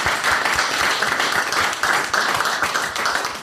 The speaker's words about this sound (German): Also erstmal großen Applaus äh, an dich für dieses Bild.